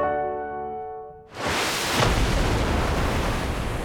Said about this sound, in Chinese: 哦，这个声音其实就是海啸制造出来的海浪声。